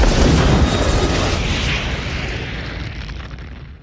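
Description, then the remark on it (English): A single loud explosion as a message self-destructs, Mission Impossible style, bursts out with a heavy low-end boom, then rumbles and hisses as it slowly decays over a few seconds, with no voices present. “This message will destruct in five seconds.”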